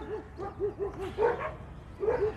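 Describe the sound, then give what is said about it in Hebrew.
Several dogs at a dog park bark in quick, overlapping bursts, short high yaps repeating over a steady background din. “זה כבר נביחות מהגינת כלבים, זה, זה משהו, זה bearable,”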